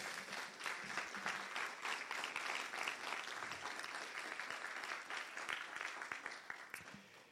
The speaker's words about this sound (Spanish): ¿Cuántos dicen gloria? ¿Cuántos le pueden dar un aplauso fuerte a Jesús?